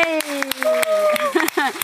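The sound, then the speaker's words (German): The audience at the Kaiserstadt Tattoo Expo 2023 applauds: sharp, evenly spaced claps ring out about every quarter second, a thin smattering of applause rather than a dense roar, with sustained voices and cheering running underneath. “Applaus für euch!”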